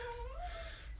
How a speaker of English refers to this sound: I apologize for my dog. They've someone's let the dog out, and let's be honest, it's a rainy day.